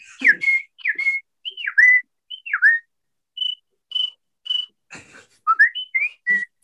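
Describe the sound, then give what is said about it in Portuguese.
A beatboxer whistles a bird imitation: a string of about a dozen short, bright chirps and swooping slides, some rising and some falling, with brief breathy clicks in between, alone and fairly loud. “Mano, pássaro.”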